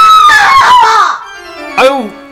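In a fruit shop, a woman abruptly lets out a loud, drawn-out yell lasting about a second, followed by a quieter pause and a short second vocal burst.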